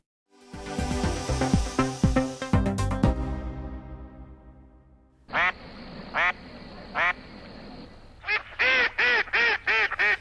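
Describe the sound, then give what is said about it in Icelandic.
Ducks quack loudly at the pond in Reykjavík, Iceland, first in a busy, overlapping chorus, then in a string of separate quacks that quicken into a rapid run of calls near the end. “Millir 30 og 40 andarungar komust á leggviði törnina í Reykjavík í sumar.”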